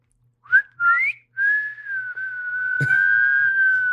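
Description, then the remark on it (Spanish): A person whistles alone: two short rising chirps, then one long sustained steady tone that holds for a few seconds, clear, with a brief click partway through. “Y por eso, si, si escuchan silbidos en el bosque o en la selva, no los sigan.”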